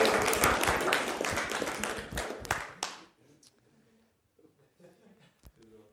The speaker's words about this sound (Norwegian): Gi henne en god klapp! Amen!